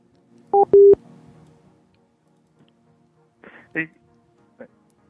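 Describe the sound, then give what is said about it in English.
A couple of short electronic keypad beeps sound clear as a cell phone is dialed, then a few brief muffled knocks and rustles follow in otherwise quiet surroundings. “Trying to call from his cell phone.”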